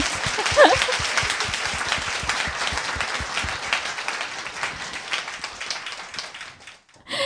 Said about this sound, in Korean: 박수 한 번 나와야 되는 거아니에